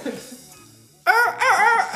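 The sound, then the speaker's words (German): A person imitates a rooster's crow, a loud, strained cock-a-doodle-doo with wavering pitch, rising in two bursts after a moment of quiet murmuring. “Einfach nur fürs Protokoll, ich würde ganz gerne einmal krähen.”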